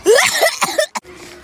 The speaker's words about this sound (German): Heute präsentieren wir Husten. Wer kann von allen Kindern am besten husten? Am lautesten.